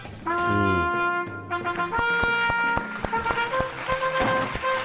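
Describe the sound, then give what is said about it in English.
Sharp, steady hand claps ring out in a quick rhythm over a backdrop of sustained, melodic musical tones, starting a couple of seconds in and continuing to the end. “The, the clapping is the sound of the the ruler hitting their knuckles.”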